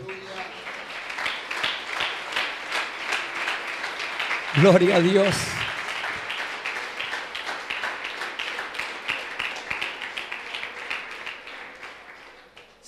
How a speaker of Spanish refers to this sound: ¿Cuántos dan un aplauso a la obra del Señor?